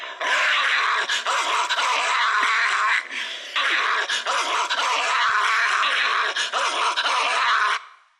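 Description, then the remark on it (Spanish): A man of about 75 imitates snarling, rabid dogs with his voice, producing a continuous, loud, raspy growling with agitated bursts, without pause for about eight seconds before cutting off. “eso, que acaban de escuchar es un señor de unos 75 años. Yo creo, yo le calculo 76. Haciendo como perros rabiosos.”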